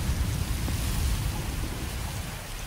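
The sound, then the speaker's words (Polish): Steady rain hisses without a break while deep, low rumbling rolls underneath, a continuous thunderstorm wash at moderate loudness with no voices present. “Dźwięki burzy relaksują cię. Słyszysz grzmot”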